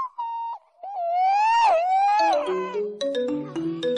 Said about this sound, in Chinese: 小树的手机响了起来，原本大哭的小树，此时一脸呆滞。从裤子口袋里把手机掏了出来，都这种时候了，还搞什么幺蛾子？